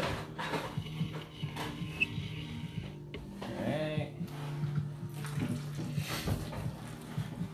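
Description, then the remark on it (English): Water pours steadily into a bowl of pancake batter as the batter is being mixed, a continuous splashing gurgle with a few light clinks and shuffles of kitchen handling throughout. “Making our pancake batter, adding some water.”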